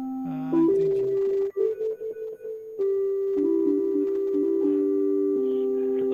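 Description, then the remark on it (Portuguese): A smooth, pure sine-wave synthesizer tone sustains and steps between a few pitches, playing a slow melodic line with steady loudness and no talking over it. “Esse é um som de um acenoide.”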